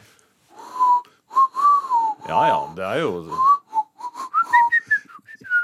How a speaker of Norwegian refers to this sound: Nei, jeg kan ikke plystre. Hør nå, nå skal jeg prøve å plystre.